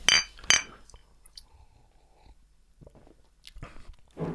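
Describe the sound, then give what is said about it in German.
Beer glasses clink together twice in quick succession at the start, bright, in a toast, followed by quiet shuffling and a few soft knocks. “Aber zuerst einmal hoch die Tassen Endlich. oder Gläser. Endlich, ja. ja. Prost, Prost.”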